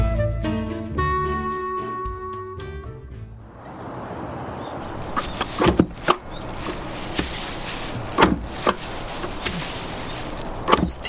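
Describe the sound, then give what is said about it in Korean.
Soft tonal music fades out, then a fodder chopper with a somewhat dull blade cuts weeds: about six sharp, crisp chopping thuds at irregular intervals over a steady rustling, crunchy background. “잡초를 작두로 자르고 있다.”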